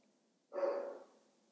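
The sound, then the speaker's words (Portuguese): A single short bark from the speaker's own dog, a gruff, breathy woof lasting about half a second, heard alone against quiet background with no talking. “Meu cão a ladrar.”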